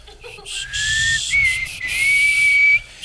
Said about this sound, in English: Hold on, I'm, I'm starting to notice uh, you're not whistling at all. You're just blowing air.